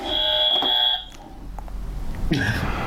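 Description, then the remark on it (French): A loud, steady electronic quiz buzzer blares for about a second, then cuts off, followed by a quieter pause and a brief second electronic tone near the end. “Et donc On va enlever les buzzers.”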